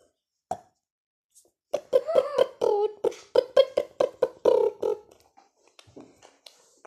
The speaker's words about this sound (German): das finde ich voll höflich von dir, dass du einfach sagst, wenn du rülpsen musst, tut mir leid, das muss jetzt gerade raus.